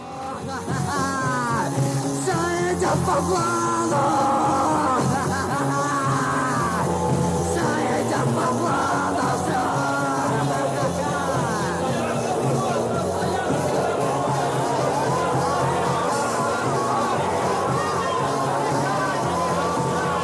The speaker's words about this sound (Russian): Они наперебой что-то вопят, поют, выкрикивают лозунги и читают тексты, которые невозможно разобрать.